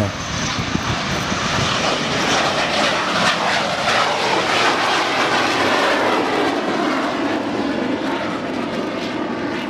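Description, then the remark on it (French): US Air Force fighter jets carrying nuclear missiles roar loudly and steadily for the whole stretch, a dense rushing drone with a slight swell in the middle and no voices. “L'US Air Force riposte en envoyant des chasseurs chargés de missiles nucléaires dans la zone.”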